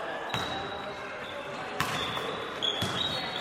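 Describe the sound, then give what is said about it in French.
A basketball bounces on a hard basketball court three times at uneven intervals, each thud sharp and echoing, with high sneaker squeaks and a steady background murmur. “C'est euh, le bruit d'un terrain de basket, tout simplement, et c'est mon premier coup de cœur en fait pour un sport.”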